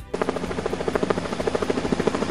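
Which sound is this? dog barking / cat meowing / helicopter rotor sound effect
helicopter rotor sound effect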